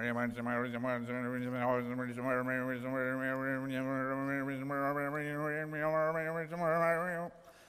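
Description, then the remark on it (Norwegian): A single voice imitates the echoing announcer at the Forus harness-racing track commentating on a race, droning in a steady, sing-song stream of indistinct syllables for about seven seconds before stopping abruptly. “Og når vinden kommer fra nord-nordvest, da kan en høre ljomen av spikeren som refererer hvordan det går i løpet.”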